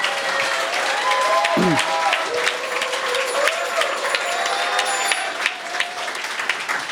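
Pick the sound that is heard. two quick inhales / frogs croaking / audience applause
audience applause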